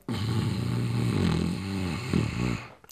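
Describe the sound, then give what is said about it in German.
A long, loud snoring inhale made deliberately as a breathing exercise, lasting nearly three seconds, with a low, rattling, buzzing texture that wavers in pitch, then cuts off abruptly. No talking. “Atme ein mit diesem Schnarchklang, spüre dieses Pulsieren im Herzen.”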